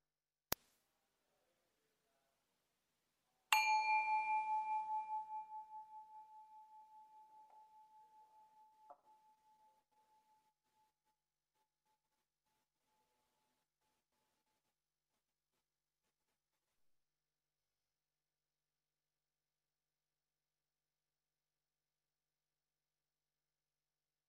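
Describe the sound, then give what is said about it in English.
A single meditation bell is struck once to begin an online group silent meditation practice, ringing out with a clear, pure tone that slowly fades over about ten seconds into silence, with a faint click before it and no voices. “so I'm going to start with the sound of a bell.”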